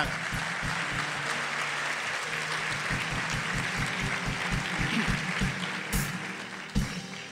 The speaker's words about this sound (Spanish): Yo, necesito que aplaudan todos, así sea dos aplausos.